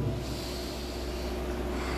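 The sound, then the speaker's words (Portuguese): A long, steady deep breath drawn in through the nose, fairly loud, with a hissing, airy rush lasting about two seconds and no talking. “Dá uma respirada fundo aí.”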